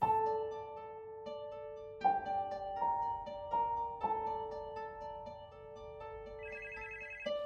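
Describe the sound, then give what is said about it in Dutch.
A telephone rings with an electronic ringtone, a melodic pattern of clear, sustained tones that repeats steadily for several seconds, fairly loud, with no talking. It is a strange call that Judy receives. “Een paar dagen later ontvangt Judy een vreemd telefoontje.”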